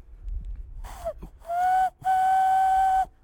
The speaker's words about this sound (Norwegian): Oi, hører du, hører du hornet? Oi. Det er turen som går, vi turer.